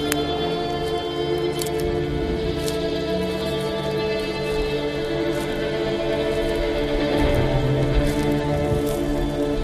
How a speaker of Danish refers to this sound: Ah, Nu begynder det at regne. Jeg går rundt herude i krattet.